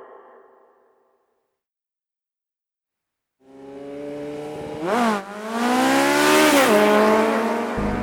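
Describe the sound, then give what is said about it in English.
After a faint hum and a few seconds of silence, a Suzuki GSX-R750 sport motorcycle engine screams to life, revving hard and climbing through a quick gear shift as it speeds loudly past down the block. “The Suzuki GSX R750 motorcycle was built for speed, and it whipped down the block.”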